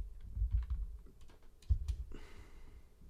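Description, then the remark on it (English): Quick clicking keystrokes on a computer keyboard as 'rock pencil' is typed into a search, a short burst of typing with a soft breathy sigh near the end. “Type in rock pencil.”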